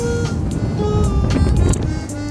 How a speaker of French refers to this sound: Bon, là, il commence à avoir un peu plus de vent.